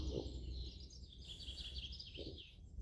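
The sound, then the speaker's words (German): A soft, steady chorus of assorted birds chirping and trilling in a forest, layered over a faint outdoor hush with a couple of low muffled rustles, no voices. “Die verschiedenen Vögel,”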